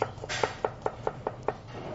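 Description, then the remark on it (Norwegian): A knife chops onion into fairly large pieces on a cutting board for tikka masala, about seven crisp, evenly spaced strikes in quick rhythm, clear over a faint low hum. “Så går vi i gang og kutter opp det man ønsker å blande tikka masalaen inn. Det er løken. Deles opp i litt større stykker.”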